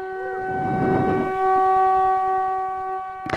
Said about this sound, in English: Go ahead, Scott, blow that trumpet if it's in your hand.